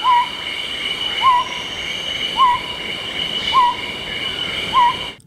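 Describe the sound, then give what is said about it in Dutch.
A newly described scops owl species, Otus bicegila, repeats a short, clear whistled hoot five times at a steady pace of about one per second, set against a constant high-pitched drone of night insects. “En die noemt Otus bicegila.”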